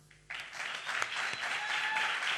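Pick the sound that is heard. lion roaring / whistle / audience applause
audience applause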